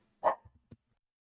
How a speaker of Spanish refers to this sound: Así que, eh, sorry, ahí le tuve que dar una pausita, ¿verdad? Porque la perra se puso a ladrar.